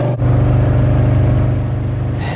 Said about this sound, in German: Ja, jetzt kommt Andreas gerade mit seinem Papa Mobil angefahren. Hi Andreas. Moin. Ja, jetzt wird es ein bisschen laut.